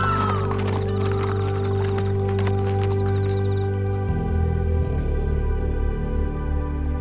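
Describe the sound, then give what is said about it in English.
Horses gallop with a rapid, uneven clatter of hooves, loudest in the first few seconds, dragging three tied-up women into town, over a steady droning musical background that shifts in pitch near the end. “They are then dragged behind horses all the way into the town.”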